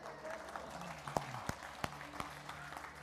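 An audience breaks into light applause, a few sharp, evenly spaced claps standing out above a soft, scattered wash of clapping and murmur.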